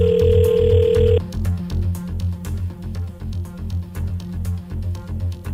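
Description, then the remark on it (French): A loud, steady telephone ring tone of an outgoing call to a contest winner sounds once for about a second at the start, then stops, leaving a rhythmic music bed with a thumping bass beat playing underneath throughout. “Là, on est en train d'appeler notre personne gagnante. Est-ce que ça va répondre?”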